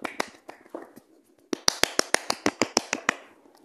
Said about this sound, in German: Ein Applaus dafür.